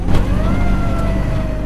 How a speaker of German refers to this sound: Das Heck ist offen und ich sehe die Straße und merke die Straße bei jedem kleinen Schlagloch. Anschnallen ist nicht. Ich verkeile mich irgendwie, während würde ich die Straßen von Washington hetzen, Sirene auf voller Lautstärke.